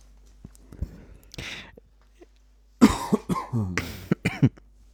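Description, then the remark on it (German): Someone clears their throat several times in a row, a cluster of harsh, raspy bursts following a few quieter breathy noises, with no talking. “oh, Entschuldigung, ich, ich mute mich mal kurz zum Räuspern.”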